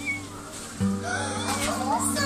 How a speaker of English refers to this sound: Whose kittens are those? Yours. Ours? Your guys's. Oh my god. I love it.